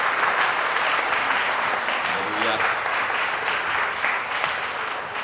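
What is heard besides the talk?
audience applause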